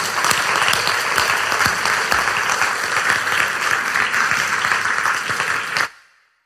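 An audience at a weekend gathering claps steadily for about six seconds to thank the speaking team and workshop leaders, a dense, sustained wash of applause that cuts off abruptly at the end.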